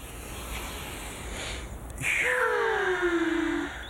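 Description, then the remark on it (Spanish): A slow, breathy inhale followed by a longer exhale with a soft voiced sigh, fairly loud, heard alone without talking. “Estamos respirando el aire hacia adentro y soltando el aire hacia afuera.”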